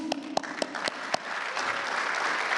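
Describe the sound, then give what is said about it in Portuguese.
Audience applause for Minister Fux, called for by President Bolsonaro at the ceremony launching railway authorizations. It begins with a handful of sharp, separate claps, then swells after about a second and a half into a dense, steady wash of crowd clapping that holds to the end. “Palmas para o ministro Fux!”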